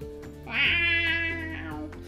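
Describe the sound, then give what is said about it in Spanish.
A single long, drawn-out cat meow, fairly loud, rising at the start and then holding a wavering, whiny tone for about two seconds before trailing off. “Soy el gato pelado.”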